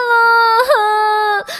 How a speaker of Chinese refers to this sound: 忽然，木木大声的哭起来